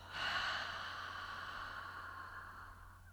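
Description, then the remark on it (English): A long, steady exhale through the mouth after three quick sniffs in a breathing exercise, a breathy whoosh lasting about three seconds that slowly fades, fairly soft, with no talking. “Three quick sniffs and a long exhale.”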